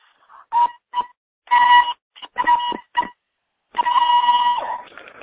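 A voice makes a series of high-pitched toning sounds: several short, sharp bursts, then one longer sustained tone at the end, loud, with no speech.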